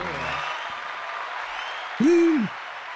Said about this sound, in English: I finally got my mom a car. I finally did it. Get myself a little applause.